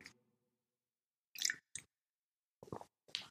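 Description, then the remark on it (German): A sip of water taken right up against the microphone: a few short, wet slurping and gulping sounds in separate bursts with brief silences between, close and fairly loud, no talking. “Ich trinke jetzt mal eben einen Schluck. Ich komme mal extra näher ans Mikrofon.”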